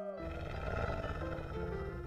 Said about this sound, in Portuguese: Quando chegaram lá, tinha mesmo um lobo muito mal uivando na beira do laguinho.